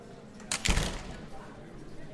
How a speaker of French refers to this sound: Mesdames et messieurs, nous venons d'ouvrir les portes de la salle modulable.